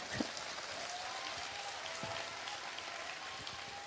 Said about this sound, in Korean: 박수 한번 치시죠.